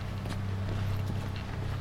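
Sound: running footsteps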